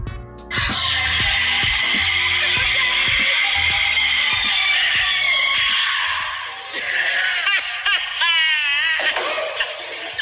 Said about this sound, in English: That was her screaming it might have just sounded like metal crunching or something. I don't know what it sounded like to you guys